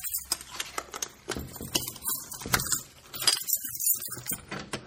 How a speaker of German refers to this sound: Jetzt holst du einen riesengroßen Schlüssel raus. Ganz besonderer Schlüssel.